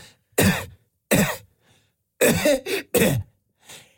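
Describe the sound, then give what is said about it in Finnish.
A person coughs in a deliberate rhythmic pattern, imitating a male choir coughing in time in a 1990s advert: two spaced coughs, then a quick burst of three, and a faint final one, loud. “Se oli se, siis mieskuoro ja ne yski tälleen rytmissä.”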